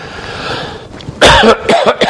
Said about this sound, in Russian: у меня тоже кашель, так что кто его знает, может и это и мне понадобится.